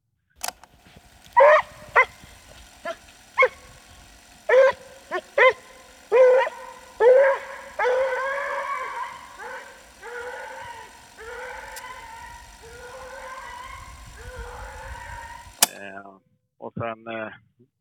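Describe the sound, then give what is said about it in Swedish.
A Treeing Walker Coonhound bays repeatedly on fox scent, starting with short sharp barks that stretch into long, drawn-out howling bays, loud, with no talking. “De, de vrålar ju när de känner rävviking. sen går de ju och jobbar med slag och man hör dem ju bra långt alltså.”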